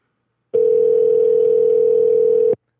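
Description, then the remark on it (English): A steady telephone dial tone hums for about two seconds, loud, then cuts off abruptly as a call is placed to phone someone back, with no voices over it. “Let's call him back again.”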